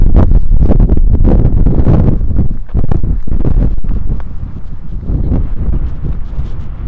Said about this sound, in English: It's windy.